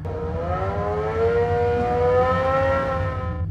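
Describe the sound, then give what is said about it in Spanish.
A motorcycle engine drones steadily on a quiet road, its pitch climbing slowly as it revs, with a deep rumble underneath and no voices throughout. “El silencio de la ruta se rompió cuando escuché el motor de una motocicleta.”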